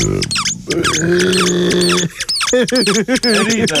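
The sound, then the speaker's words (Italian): Several shrill, wavering squeaks in quick succession, loud, with sustained whistling tones and rapid chirpy bursts like a rubber squeaky toy being squeezed repeatedly. “Vedi che fa ridere? Fischiatore!”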